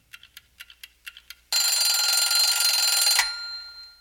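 A clock ticks in quick, even beats, then an alarm clock bursts into a loud, continuous metallic ringing for nearly two seconds before cutting off and fading. No one speaks.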